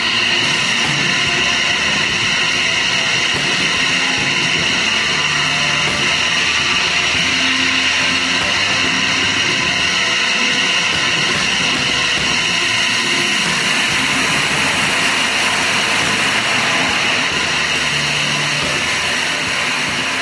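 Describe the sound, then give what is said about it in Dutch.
A loud, steady wash of Moog synthesizer noise with droning tonal bands, rushing like highway traffic and shifting slightly in color partway through. It plays alone for the whole stretch, with no voices. “Doordat het uiteindelijk duidelijk werd dat het een Moog synthesizer was.”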